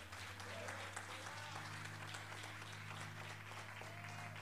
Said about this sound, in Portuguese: Ah, dá um aplauso aí bem forte. Vamos junto, vamos, meu irmão.